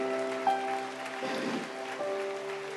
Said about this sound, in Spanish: Dale un aplauso a ellos, dale un aplauso.